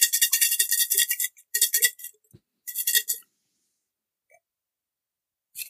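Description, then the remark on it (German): Lots rattle inside a container as they are shaken for a draw, in three bursts of bright, fast shaking, fairly loud, with short pauses between them and no talking. “Ja, wir hören, wie du dir da was schüttelst.”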